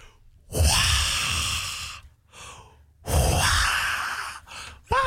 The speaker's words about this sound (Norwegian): Ah, det, ja, det er jubel. Det er jubel og begeistring.